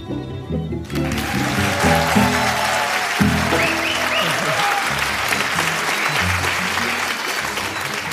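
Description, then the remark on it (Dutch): A live audience claps steadily and loudly for several seconds at a live show recorded in front of an audience, with someone on stage grinding grain; a dense wash of applause fills the room with a few scattered voices murmuring underneath. “Ja, lieve luisteraars thuis, jullie horen het al. Het is een eh, beetje een andere aflevering dan gebruikelijk.”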